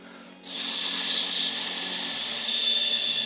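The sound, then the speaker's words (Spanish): A voice makes a long, steady hissing "sss" sound of the letter S, starting after a brief pause and holding evenly, fairly loud, with no words spoken. “Por eso la S es bonita, te decía, que la S es el sonido del silencio, mira.”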